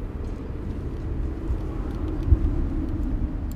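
A car drives, following another vehicle, with a steady, low engine rumble and road noise filling the whole stretch, no voices and a brief thump near the end.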